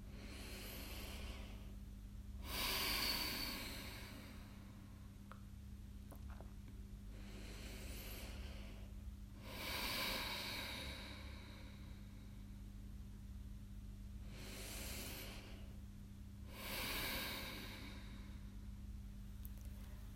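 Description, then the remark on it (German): Three slow cycles of deep breathing during a relaxation exercise, each a drawn-out inhale followed by a long airy exhale, fairly loud over a steady low hum, with quiet pauses between breaths. “Und wir atmen jetzt zusammen einfach nochmal dreimal ordentlich durch.”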